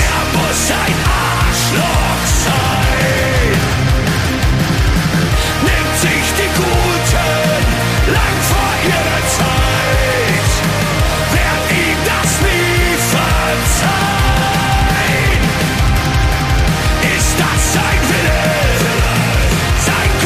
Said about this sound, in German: Ja, das war ein Song von …